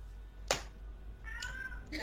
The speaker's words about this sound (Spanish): el gato.